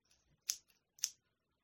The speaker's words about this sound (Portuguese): Eu acho que essa, essa tesoura aqui, ela tá meio estranha. Quando eu corto com ela, ela fala clacti, clacti.